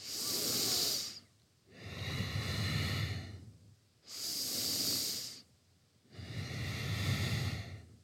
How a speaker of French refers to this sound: Dans chaque mouvement va s'accompagner d'une respiration sonore et qui est comme une rampe, comme un fil rouge dans ma salutation au soleil.